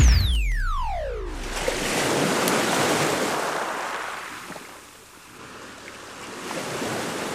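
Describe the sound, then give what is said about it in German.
A falling electronic sweep at the start, then steady surf of the sea at Marseille rushing and washing in broad swells, with no voices, just the continuous roar of waves rising and easing. “Das muss aber noch das Meer von Marseille sein.”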